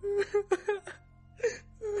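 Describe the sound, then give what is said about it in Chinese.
A woman wails and sobs in a high, quavering voice: a run of short, broken sobs, a brief silence, then two longer drawn-out cries. No speech is heard. “突然听到有女子的哭泣声，哀婉凄厉。”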